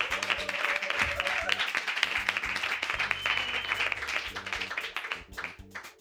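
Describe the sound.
An audience applauds a small live concert in the TSF Jazz studios in Paris, in a dense, steady wash of many hands clapping, with a faint low hum and a few voices mixed in, sustained for several seconds before thinning out at the end.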